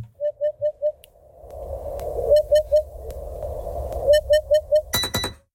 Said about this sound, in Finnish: Ja sitten kun mä äsken soitin vähän, että miltä harjalintu kuulostaa, eli tältä. Eikö se ole kiva?